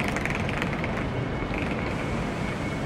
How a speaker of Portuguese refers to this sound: Essa semana mesmo eu fui até Manchester de trem. Esse som ambiente que vocês estão ouvindo é da estação Manchester Piccadilly, plataforma 6.